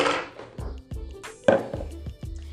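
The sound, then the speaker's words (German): A mixing bowl is lifted and handled, giving a series of dull knocks and light clinks against a hard surface, with a brief rustle at the start and a sharper clatter midway. “Ich nehme nur kurz die Schüssel.”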